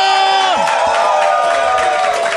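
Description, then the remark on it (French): A crowd of at least a hundred people in Saguenay, Quebec cheers and whoops loudly and continuously, many overlapping voices shouting and yelling together at high pitch for a couple of seconds without any pause. “Et là, devant nous, on a au moins une bonne centaine de personnes qui sont là présentement.”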